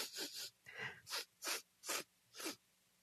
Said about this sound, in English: y'all get the hint there with me rubbing my nose and sniffing? That's a little joke for y'all out there.